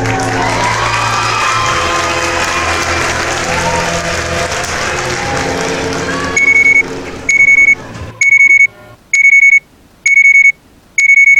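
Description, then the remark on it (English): A phone with a holographic display rings with an incoming call, six evenly spaced, high electronic tones that keep repeating in a steady pattern. They come in as a loud wash of crowd noise like applause fades out. “The holographic display projecting upwards from the back of the phone read, Incoming call from Teddy Erickson, 99 2086, 7:11 a.m.”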